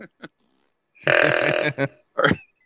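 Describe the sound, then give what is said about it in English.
A loud, rough guttural grunt, drawn out for about half a second, followed by a couple of short vocal bursts and a brief spoken word. “that's a grunt.”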